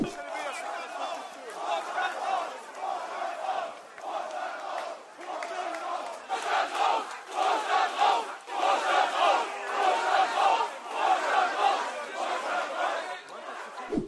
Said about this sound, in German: Vorstand rausrufe, Baumann rausrufe.